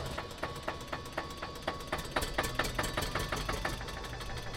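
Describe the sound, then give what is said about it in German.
An Eicher tractor engine idles, its steady low rumble punctuated by regular sharp knocking pulses about three to four per second, with no talking over it. “Hier ein E-Ring ohne halten und dann läuft der Eicher.”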